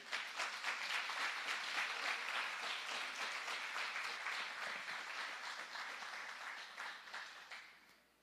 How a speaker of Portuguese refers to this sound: Você pode aplaudir a Jesus pela vida dele?